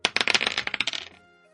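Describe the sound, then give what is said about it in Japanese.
Dice are rolled during a sugoroku board game, clattering and tumbling across a hard surface in a quick burst of rapid clicks and rattles, fairly loud, before settling and fading into quiet; the roll comes up a six. “では、サイコロを振ります。”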